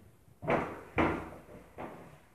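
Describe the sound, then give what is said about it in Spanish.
A jammed apartment door being tried: three heavy, dull thuds, the first two close together and the third softer after a pause, each with a short rattling decay. No voices. “Rápidamente intentó abrir la puerta de su apartamento, pero la puerta estaba trabada extrañamente.”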